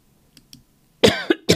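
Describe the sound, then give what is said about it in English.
A person clears their throat: two soft, faint catches followed by three loud, rough bursts in quick succession, with no talking. “excuse me, I just got to clear my throat here.”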